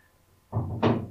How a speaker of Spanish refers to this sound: hoy le dio por hacer trasteo. Entonces, si escuchan, pues está moviendo cosas en su casa.